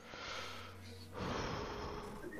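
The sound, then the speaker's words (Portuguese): Two slow, deep breaths, a long airy inhale followed by a heavier, rushing exhale, with no talking. “tô, tô bem, é que eu só tô respirando fundo.”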